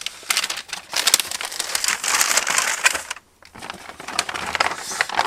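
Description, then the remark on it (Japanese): Busy crinkling and rustling of plastic packaging of a seafood-flavour cup yakisoba (instant fried noodles) as someone rummages through it for lunch, continuous bursts with a short pause near the end before more rustling resumes. “カップ焼きそばはガサガサガサガサガサガサガサこれだこれは魚介のうまみがやみつきになるシーフード味焼きそばを発見しましたのでこれを食べましょう”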